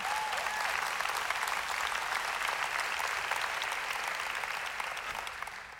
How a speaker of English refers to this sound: Oh, come on, you can clap better than that.